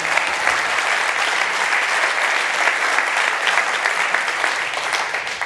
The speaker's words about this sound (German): Ich würde sagen, wir geben der Technik mal einen Applaus, weil die machen so viel.